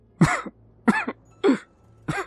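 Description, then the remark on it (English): A badly wounded man coughs out blood four times in a steady series, each harsh, throaty burst fairly loud, separated by short pauses with no talking. “he said, coughing out blood as he did.”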